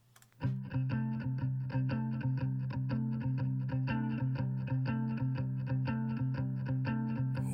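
A blues band kicks off an instrumental intro, driving distorted electric guitar and steady rhythm section playing a loud, repetitive groove with no singing yet.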